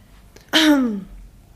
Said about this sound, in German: Huste dich aus.